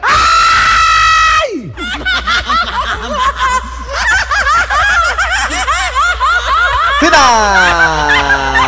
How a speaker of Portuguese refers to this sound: Soldado 24. Presente. Soldado 24, grite!